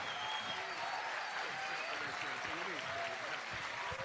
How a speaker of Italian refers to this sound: Un ultimo applauso per il cast di Star Trek Picard.